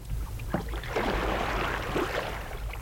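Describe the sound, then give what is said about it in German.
Paddles dip and pull through the water of the Colorado River from a canoe in the desert, a few soft splashing strokes over a steady wash of moving water and low rumble, with no voices. “It was a pleasure paddling with you, my friend.”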